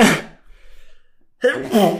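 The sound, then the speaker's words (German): Two loud sneezes separated by about a second of near-silence, each a sharp, breathy burst with a voiced edge and no speech around them. “oh Gott, Entschuldigung, Leute. Gesundheit.”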